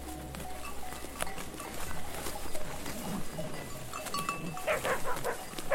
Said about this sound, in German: Programm heißt Ramaz de Foc, Feuerherden. Schaf- oder Ziegenherden werden in strategisch ausgewählte Wälder getrieben, um dort das Dickicht zu fressen und das Unterholz auszulichten. Künftige Feuer sollen sich dort nicht so schnell ausbreiten können.